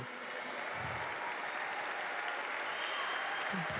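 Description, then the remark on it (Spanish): An audience applauds steadily in praise of God, a dense, continuous wash of clapping that stays fairly even in loudness throughout, with a few faint voices mixed in. “Dale un fuerte, fuerte aplauso a Él.”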